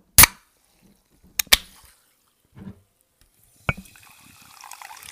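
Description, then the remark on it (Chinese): Several sharp clicks and pops, like a bottle or can being opened, followed by a soft, steady high-pitched hiss of sparkling water fizzing that swells gently toward the end. “各位听众，大家好，你好，你好，你好，又到我们气泡水的声音。”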